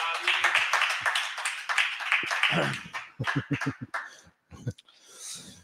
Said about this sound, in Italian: Vabbè, allora, allora questo, visto che c'è stato questo applauso, è il momento di entrare nel, nel mondo degno.